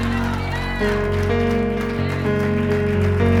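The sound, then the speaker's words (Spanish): An audience applauds loudly with dense, steady clapping over sustained organ-like keyboard chords that shift pitch every second or so, with a voice faintly mixed in. “y ese pueblo que es bendecido levanta un gloria a Dios con un fuerte aplauso para ti.”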